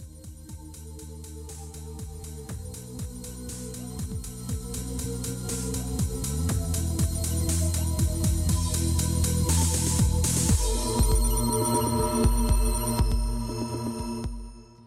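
A trip-hop track plays on its own: a steady, slow beat over deep bass and sustained tonal layers, holding a moderate level before ending abruptly near the close.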